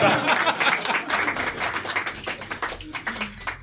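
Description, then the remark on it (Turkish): A crowd at an award presentation applauds steadily for several seconds, a dense, fairly loud wash of many overlapping claps that holds on throughout, with sharper individual claps poking out near the end. “Ee, alkışlamanız gereken yer burası.”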